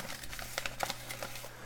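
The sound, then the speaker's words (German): A fireplace fire crackles with irregular sharp pops and snaps over a steady low hum, with no one speaking. “Kaminfeuer im Hintergrund.”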